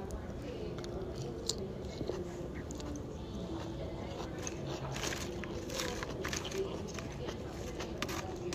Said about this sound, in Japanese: もしかしたらサラダの音が聞こえてるかも